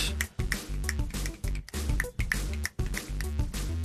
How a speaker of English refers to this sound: Do you like that fa- fancy little beat? Yeah, that was nice. You're doing like one hand clapping with each hand. Because I can't, cl- I can't click with both. I can click with this finger. Can't click with the other one.